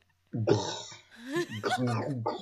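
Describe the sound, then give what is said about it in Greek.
A voice imitates oral sex with wet, gurgling slurping and grunting mouth noises, fairly loud, in two bursts separated by a brief dip, lasting about two seconds. “Αυτή είναι η μίμηση του … για το στοματικό”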